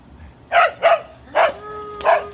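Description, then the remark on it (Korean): The dog of apartment 302 barks four times in short, sharp bursts, the first two close together and the last two spaced out, fairly loud, with no one talking. “개가 또 짖네. 아우 시끄러.”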